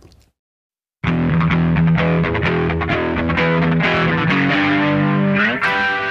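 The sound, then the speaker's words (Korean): After a second of silence, a loud, heavily distorted electric guitar riff kicks in with thick, buzzing sustained chords that continue steadily to the end, no voices present. “예전에 이런 기타 사운드를 이제 오토바이 타는 사운드라고 불렀어요.”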